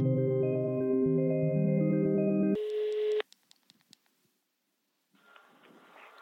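A telephone ringing tone plays over the line, steady and tonal, then cuts off into a few sharp clicks, a brief silence, and a hiss of open-line noise. The call is to a hairdresser in Dalarna.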